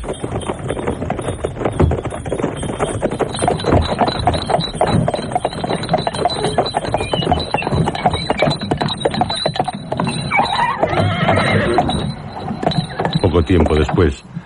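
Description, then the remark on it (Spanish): A horse-drawn coach carrying three passengers and driven by postilions pulls away at a quick pace: steady, rapid clip-clop of hooves over a continuous rumble of rolling wheels and rattling, loud and unbroken throughout. “Los postillones habían recibido ya instrucciones y se pusieron rápidamente en camino, a un paso rápido, a una buena velocidad.”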